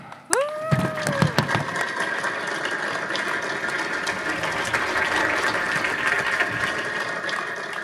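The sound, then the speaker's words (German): A short falling electronic beep from a food pickup signal rings out, then an audience breaks into dense, steady applause for a guest coming on stage, which keeps going at an even level for several seconds. “Und äh, unter dem tosenden, mittlerweile tosenden Applaus äh, und dem Piepen des bereits zum Abholen des Essens kommt jetzt auf die Bühne”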